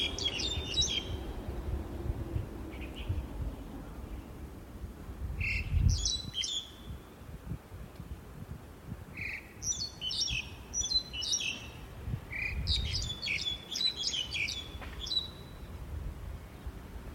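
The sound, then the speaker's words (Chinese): A single bird in a tree in a park sings the same short, high-pitched phrase over and over, bright chirpy notes in repeated bursts over a low, steady rumble of background noise; though it may sound like several birds, it is only one. “你感觉一下哈，它其实就在公园里的树上叫，然后呢，这听起来你会觉得像几只，其实就只有一只。”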